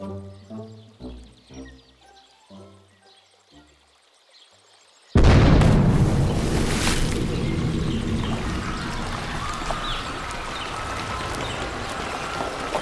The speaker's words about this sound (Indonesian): Suatu hari terjadi keributan lagi di Sungai Tengah. Tapi kali ini bukan hewan-hewan yang menyelamatkan diri dari ledakan di muara. Kali ini ledakannya terjadi di Sungai Tengah. Ternyata para manusia mencoba meratakan daerah sekitar sungai